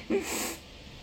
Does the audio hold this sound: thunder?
no